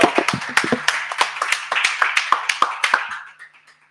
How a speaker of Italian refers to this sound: Grazie, Grazie un applauso.